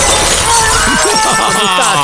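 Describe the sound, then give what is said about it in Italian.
A window crashes down and glass shatters in a loud, bright burst, followed by a scatter of tinkling shards and clattering debris over a couple of seconds, with no one speaking. “Minchia, è caduta la finestra!”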